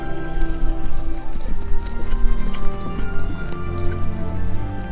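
Steady clip-clop of a Roman soldier's horse plodding along on a dark autumn day, with the hiss and patter of heavy rain falling in a storm throughout, continuous for several seconds.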